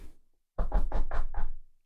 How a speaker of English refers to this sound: knock lightly.